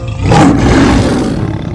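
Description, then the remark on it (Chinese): A lion lets out one loud, deep roar that swells quickly and holds its rumbling, gravelly force for nearly two seconds, with no voices alongside it. “狮子的叫声震耳欲聋，非常有气势，连鸭子的羽毛都被吹掉了几只。”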